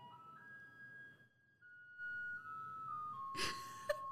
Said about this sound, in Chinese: 好，让大家听到垃圾车经过的声音。